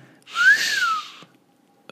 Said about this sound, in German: War, war das der traurige Versuch eines Pfeifens? Das war ein gutes Pfeifen.